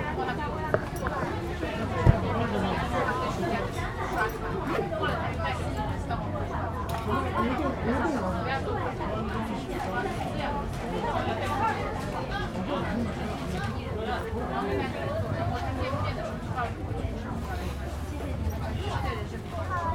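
Steady murmur of many overlapping voices from a crowd milling about outdoors in the 798 art district on October 3, with no single speaker standing out, plus faint footsteps and occasional light clatter mixed into the babble.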